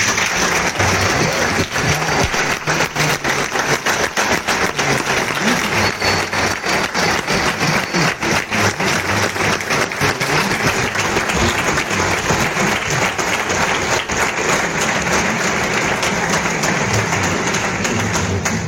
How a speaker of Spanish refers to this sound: señoras y señores, es un placer invitar a este escenario pregonera de esta 61 edición de la Rosa Nacional. Recibamos con un gran aplauso